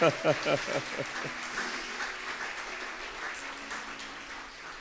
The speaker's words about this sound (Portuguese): Aplauda ao Senhor por essa palavra maravilhosa.